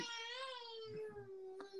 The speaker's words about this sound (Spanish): ¿Perdón? ¿Qué es esto? pues estás llorando o qué? No, yo. ¿Tú? ¿Te escuchas? ¿Estás llorando?